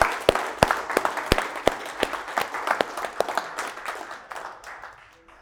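A small audience claps for several seconds, sharp individual claps standing out over a dense patter that gradually thins and fades toward the end.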